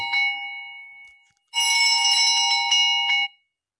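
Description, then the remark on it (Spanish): A small alarm rings: first a single bright tone fading out, then a loud, sustained metallic ringing for about two seconds that cuts off abruptly. No one speaks. “Perdón, una, pequeña alarma.”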